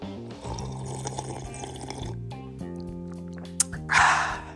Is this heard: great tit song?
no